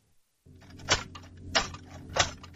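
Metallic clattering like someone rummaging through a cutlery drawer: three sharp clinking bursts at an even pace over a steady low hum, moderately loud, with no talking.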